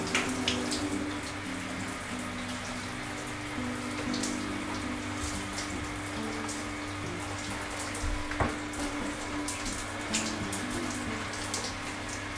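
Steady hiss of shower water running continuously, with faint droplet patter and a low sustained tonal hum underneath; no one speaks.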